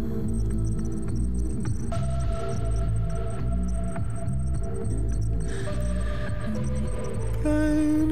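An electronic music track built from samples, with a dense, pulsing low end and layered synth tones that shift every few seconds, playing loud and steady throughout with no voices.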